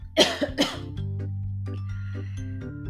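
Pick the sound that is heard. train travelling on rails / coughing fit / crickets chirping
coughing fit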